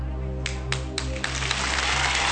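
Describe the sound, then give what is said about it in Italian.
A few scattered claps quickly swell into steady, dense audience applause that keeps building, fairly loud and full, over a low background hum. “Mai applauso fu, fu più telefonato di questo, credo.”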